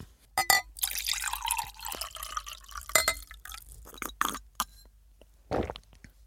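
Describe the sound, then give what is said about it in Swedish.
Water pours into a glass, a broken trickle with clinks and splashes over about six seconds, ending in a few short spurts as the pouring stops. “Vänta, jag ska bara hälla upp lite vatten.”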